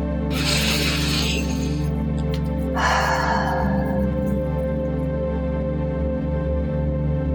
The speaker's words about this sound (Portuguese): Sente-se numa posição confortável, mantenha sua coluna ereta, tome uma respiração profunda.